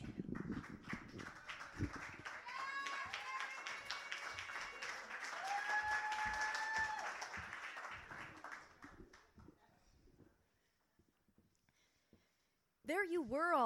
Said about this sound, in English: Next up, give some applause for